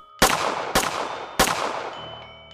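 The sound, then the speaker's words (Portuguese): Three sharp shots from a small-caliber pistol ring out at night at a house in fairly quick succession, each a loud crack with a short echoing tail, followed by a faint lingering hum. “Disparos de uma arma de calibre baixo, uma arma que mais tarde seria encontrada.”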